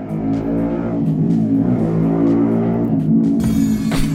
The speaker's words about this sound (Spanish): Perdón, las motos, malditas.